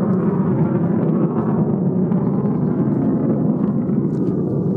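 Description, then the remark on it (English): A steady, heavy roar of fighter jets fills the air without letup, a deep rumbling drone that holds constant throughout with no voices over it. “It's fighter jets or at least not commercial planes.”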